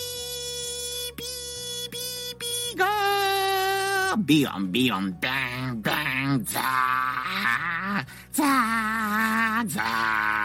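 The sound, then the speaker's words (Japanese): A voice imitates the dial-up modem tones heard when connecting to the internet over a home telephone line: a sustained high beep, then warbling, buzzing and screeching vocal noises, loud, running continuously for about ten seconds. “そのね、あの、インターネットを開始しようと思ったら、その、ダイヤルアップ接続っていうのがあって、その時にですね、こんな音がするんですよ。”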